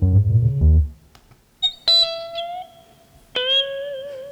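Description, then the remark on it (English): A buzzy, distorted low electronic tone from a motorized-fader force-feedback digital interface gives way to three bright synthesized notes that sustain, bend and wobble in pitch, played alone with no talking. “We call it open haptics, and you can make your own kind of force feedback digital interface by using motorized fader and there are a couple of interactions.”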